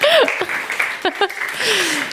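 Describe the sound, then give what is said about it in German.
A crowd claps steadily, dense and fairly loud, for about two seconds, with a few rising and falling vocal whoops or cheers mixed into the applause. The applause at an event is for the women attending. “Applaus an die Frauen.”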